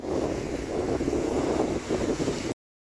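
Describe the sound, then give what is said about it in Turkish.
Loud, constant storm wind in Muğla, Turkey, buffets the microphone with a heavy roar, while crashing waves churn underneath for a couple of seconds before cutting off abruptly. “Muğla'yı da fırtına vurdu. Kayalıklara çıkan birçok tekne parçalandı.”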